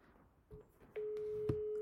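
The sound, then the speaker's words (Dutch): A steady, mid-pitched telephone ringback tone sounds on an outgoing call to someone in Valencia, preceded by a brief blip, then holding clearly and evenly for about a second, with no voices present. “Maar we gaan even met Max inbellen om te kijken hoe hij het daar heeft in Valencia”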